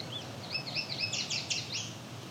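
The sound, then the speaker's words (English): A yellow warbler sings a quick series of high, sweet whistled notes that speed up and rise toward the end, heard alone over a low background hiss. “Yeah, there's that's definitely the yellow warbler version.”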